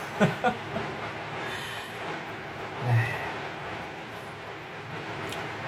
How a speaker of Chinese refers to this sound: 已经有在放鞭炮庆祝伟大胜利的了。哎呀，这老百姓的心情，在这炮仗声中，你看已经能听出来了，是吗？哎呀，听了这声音，你们也知道我是住在郊区，我住在外环以外啊，外环以外才才能放才能放鞭炮的啊！